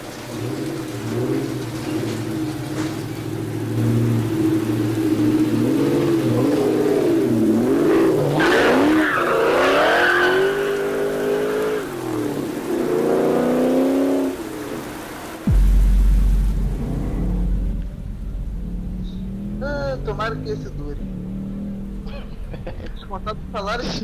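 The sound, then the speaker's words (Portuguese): A car taken from a department vehicle workshop drives off: its engine revs hard with rising and falling pitch while tires squeal and skid, loud, then drops into a low rumbling idle with faint voices in the background. “Passam, dão carteirada, pegam um carro de novo e seguem caminho.”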